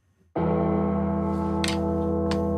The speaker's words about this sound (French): les sons de cloche que vous allez entendre, et c'est ça qui est génial, ont été tapés par le type qui a construit et fondu la cloche